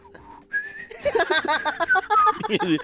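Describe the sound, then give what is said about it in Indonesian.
A person whistles a short melodic tune, clear pure notes that shift in pitch, soon joined and partly covered by overlapping talking voices. “Semua lagu dia bisa siulnya dia.”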